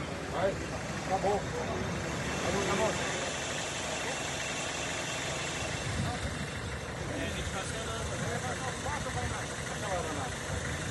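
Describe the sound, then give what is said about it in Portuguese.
A helicopter engine runs steadily, a loud, continuous droning roar that fills the whole stretch, with people's voices talking over it; the helicopter is kept running while victims' bodies are brought for transport to São Sebastião, amid Civil Defense and police crews. “Tem esses dois corpos chegando e a gente já vai esperar com o helicóptero ligado para agilizar a remoção.”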